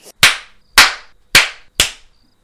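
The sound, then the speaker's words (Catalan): Four or five sharp, loud slaps on a baby's skin land at a steady, evenly spaced rhythm, each a crisp smack with a short decay. No voices are heard. “M'ajupo i li dono una bufetada. Comença a plorar en silenci torno a colpejar-la.”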